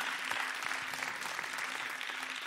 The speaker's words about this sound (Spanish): Dale un fuerte aplauso a Dios ahí